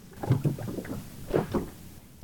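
A research boat moving on the sea off Piran, Slovenia, on a sunny morning, heading to its first observation point: a low rumble with irregular thumps and splashy bursts as the hull meets the water, with no voices.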